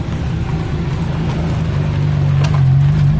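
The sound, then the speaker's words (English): A Ferrari F40 supercar creeps slowly past, its engine a deep, steady rumble that swells slightly as it eases gingerly over a tiny speed bump covering power cables, with a brief knock late on. No voices. “very gingerly over a tiny speed bump that's covering some power cables. And here comes an F 50.”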